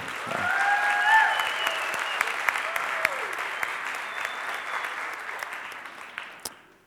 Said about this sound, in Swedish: Kan vi inte ge kören en liten så här applåd igen?